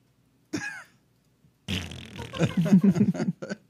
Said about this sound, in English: You gotta s- get some of that uh, some of that gas out. Okay. Let's hear some of that gas.